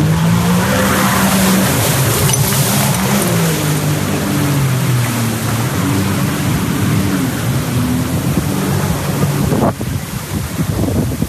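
A car engine roars and revs, its pitch rising and dipping as it suddenly speeds up and swerves through a sharp turn, drenching a bystander with spray, with a loud sustained hiss of skidding tires throughout and an abrupt drop near the end.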